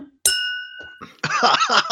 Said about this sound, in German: stoße ich jetzt mal hier aufs Mikro, warte, und Prösterchen auf ein Jahr Museumsabteilung und auf noch tausend Jahre. Auf euch. Mindestens. Auf uns.